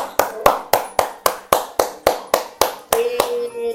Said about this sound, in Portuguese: Resposta muito boa, olha, gostei, isto merece palmas.